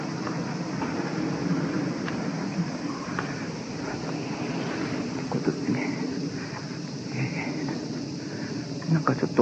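A train rolls along the rails with a steady, loud rumble and scattered clacks and rattles, continuous throughout, with a hint of wind in the background.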